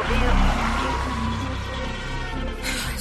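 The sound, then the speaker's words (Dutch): Steady interior drone of a moving car on its way to the motorway: a deep engine rumble and broad road hiss that hold constant for a few seconds, fairly loud. “Ik zit in de auto.”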